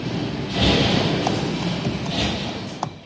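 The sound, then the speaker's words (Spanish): A dense, steady industrial roar of factories in operation fills the space, with rhythmic knocking and clattering running through it and a few sharper metallic clicks near the end. “el estruendo de las fábricas en marcha”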